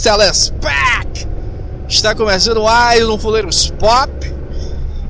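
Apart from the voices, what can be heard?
car interior road noise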